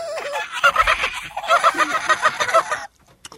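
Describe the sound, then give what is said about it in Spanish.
A person imitates a dolphin with a rapid run of squeaky, high-pitched chattering bursts, fairly loud, lasting a few seconds before cutting off into near silence. “Es es difícil hacer el sonido de los delfines, tienen como el registro bien alto.”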